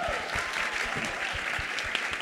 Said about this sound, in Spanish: Y nada, bueno, un aplauso también a Spotify por hacer esto posible, me parece.